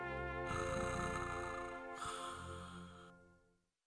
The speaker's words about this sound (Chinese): 说完，熊就睡着了。电话里还传来了呼噜呼噜的声音。